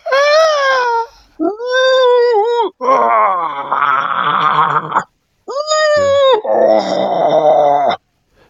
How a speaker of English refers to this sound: So, you know how we were talking about ingressive sounds just a moment ago, like making a sound on the inhale. Yeah. Yeah. Can you do that for me?